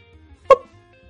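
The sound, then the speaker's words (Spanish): A single quick, hollow pop made with the mouth, a voice imitating the hip bone separating from the femur when a leg is disarticulated, fairly loud against near silence. “así suena como una bolita así vacío.”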